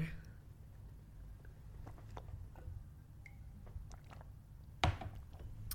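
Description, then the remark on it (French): Someone quietly takes a sip of water: faint wet clicks and soft swallowing sounds over a low hum, with one sharper knock near the end. “Donc, je prends une gorgée d'eau parce que.”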